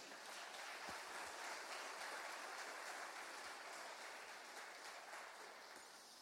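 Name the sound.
audience applause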